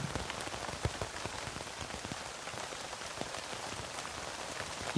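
Steady rain pattering on a tent, a dense, even hiss of countless small drops with scattered sharper ticks, continuous and fairly soft, with no voices.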